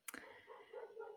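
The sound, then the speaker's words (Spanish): A single quick, sharp dog bark, followed by a brief whiny, whimpering tail that fades out. It is fairly quiet, heard on its own with no one talking. “¿Tienes un perro?”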